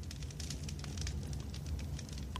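A small campfire crackles steadily, with irregular sharp pops over a low, continuous rumble of burning. No voices.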